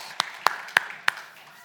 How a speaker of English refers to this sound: And uh, yeah, let's give them a round. A round of applause.